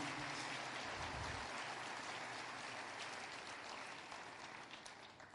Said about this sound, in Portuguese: Palmas para mim.